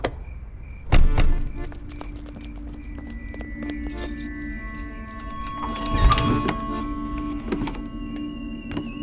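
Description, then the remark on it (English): Metallic jingling of keys as a spare key is used to unlock a door, a solid thunk of the lock turning near the start, then more rattling and clicking around a door handle before another clunk as the door gives way. “It's not breaking in if we use a key, right?”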